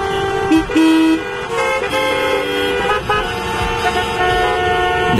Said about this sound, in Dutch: toeterende auto's voor een rood licht. Blijkbaar denken ze daar dat het sneller groen wordt als je toetert. Maybe they think that by honking they can make the signal turn green faster.